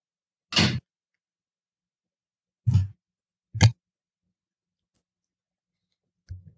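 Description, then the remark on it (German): A door opens: a few separate sharp clunks and clicks from the latch and handle, spaced a second or two apart, with no one talking. “Jetzt geht bei mir die Tür auf, kurz.”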